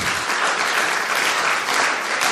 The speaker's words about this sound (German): Ist das mal ein Beifall wert?